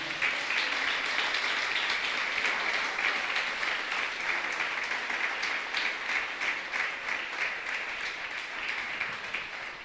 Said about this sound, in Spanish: Fuertes aplausos al Señor.